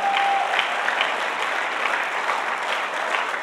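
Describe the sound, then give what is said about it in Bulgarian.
An audience claps steadily, a dense, continuous wash of many hands at an even, fairly loud level that holds throughout without pausing, with no voices standing out. “Благодаря ви за ентусиазма и за дарението на ръкопляскане, което давате на Бога.”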